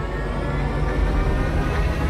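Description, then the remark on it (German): A steady, loud designed car sound with a dense low rumble and droning tones, a car at full throttle on the Autobahn, constant throughout with no voices. “Das ist jetzt Autobahn. Das glaube ich ist Vollgas.”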